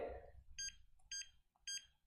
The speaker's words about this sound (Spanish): ¿Por qué, ¿Por qué suena el teléfono ahorita, güey? Estoy en la oficina, güey.